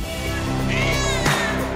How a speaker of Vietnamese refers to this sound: Một đặc điểm tiến hóa của loài mèo hiện đại là tiếng kêu meo meo của chúng, đặc biệt phát ra the thế, được chèn vào tiếng kêu gừ gừ.